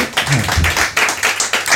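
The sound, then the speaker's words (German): An audience claps steadily, a dense patter of many overlapping hand claps forming a loud, continuous round of applause with no one speaking over it, sending a performer off the stage with thanks. “Und mit dem gleichen Applaus verabschieden wir den Jonas von der Bühne und sagen Dankeschön nochmal dafür.”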